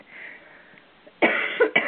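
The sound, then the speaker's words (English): Two sharp coughs from a radio host break a near-silent background, the first a longer harsh burst and the second a quick follow-up moments later. “excuse me, the bane of every um, uh, radio uh, host is is the cough, and not getting to the cough button in time.”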